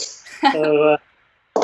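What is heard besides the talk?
beer bottle being opened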